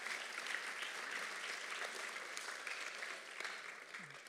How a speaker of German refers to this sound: Ein Applaus für Christoph.